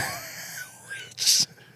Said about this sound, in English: No, I was about to cough.